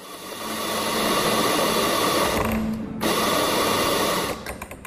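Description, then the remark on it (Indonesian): A coffee grinder at Cafe Koji Genki Project, an autism-friendly cafe, whirs loudly and steadily with a dense, gritty buzz and a low hum as the barista makes an espresso ordered by a customer, briefly dipping before resuming, then tapering off at the end. No one speaks. “Desing mesin giling kopi memecah keheningan di Cafe Koji Genki Project.”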